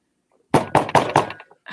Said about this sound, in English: Oh, there's knocking.